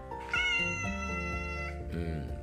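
A cat meows loudly and close by, one long drawn-out wavering meow that bends in pitch, followed by a shorter rising meow, with no talking.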